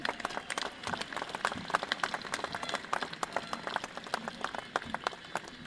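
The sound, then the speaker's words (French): An audience applauds an association's volunteers steadily, many hands clapping in a dense, continuous patter with sharp individual claps standing out, moderately loud and sustained throughout. “Je pense qu'on peut applaudir maintenant tous ces bénévoles.”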